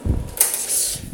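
A steady electric fan whirs, a low rumble giving way to a broad airy hiss that holds for about a second with no one speaking.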